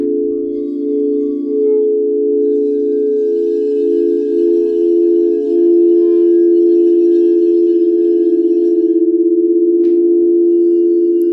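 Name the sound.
singing bowl ringing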